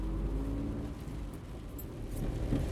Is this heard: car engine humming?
yes